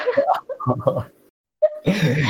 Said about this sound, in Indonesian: Bentar ya, batuk dulu sedetik.